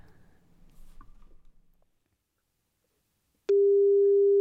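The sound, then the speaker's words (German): A phone call's ringing tone sounds once as a steady, loud electronic beep lasting about a second, following a stretch of faint rustling and handling noise. “ich ihn jetzt einfach gerne mal anrufen wollen würde.”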